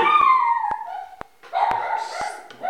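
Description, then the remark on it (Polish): A guard dog yips and whines at someone wanting to drive onto the property, in a run of high, sliding cries, some drawn out, with a few sharp clicks between them and no talking. “No, ktoś chciał wjechać na chatę, ale na szczęście jest obronny pies, który chciał się też przywitać.”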